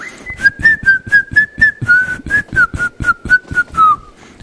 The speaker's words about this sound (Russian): О, у тебя там свист уже какой-то пошел.